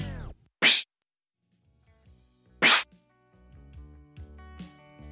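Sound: punch sound effect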